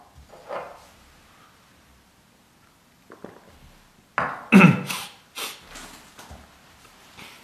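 A lawyer hosting a livestream takes a drink of water: a soft bump, a pause, then a cluster of louder knocks and clunks of a cup being handled, followed by a few fainter rustles. No one speaks.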